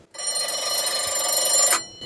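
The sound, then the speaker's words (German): A locomotive bell, switched on to test it, rings in a rapid, continuous metallic clang for about a second and a half, bright and fairly loud, then stops abruptly. No one speaks over it. “Ähm, es ist nichts weiter als um die Klingel zu prüfen.”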